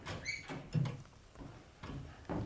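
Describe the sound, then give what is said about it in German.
A door swings open with a short, high creak followed by a few dull wooden knocks and bumps, moderately loud, with no voices. “nun, dann öffnen Sie doch mal, lieber Hedge”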